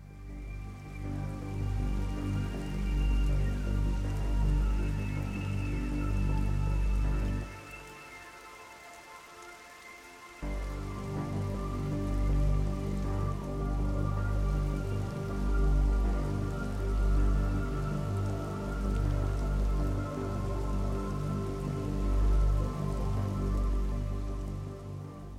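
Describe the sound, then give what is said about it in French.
A slow, dark and melancholic video game soundtrack of layered, sustained low tones that thins out briefly partway through before swelling back, steady and fairly loud, with no voices. “la bande-son de Riverband est en total contraste avec le visuel mignon ou le gameplay fortement typé action, puisqu'elle est tantôt mélancolique, tantôt sombre”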